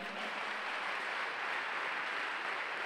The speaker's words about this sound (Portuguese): Se você crê nisso, aplauda ao Senhor.